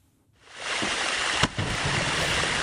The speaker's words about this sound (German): Ja, so klingt es, wenn ein Gletscher schmilzt, das Wasser fließt, das Eis ist dann weg und es kommt auch nicht wieder zurück. Genau das droht jetzt vielen Gletschern wegen des Klimawandels.